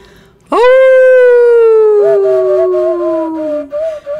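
A loud wolf howl swoops up sharply and then slides slowly downward for about three seconds, with a second howling voice joining partway through.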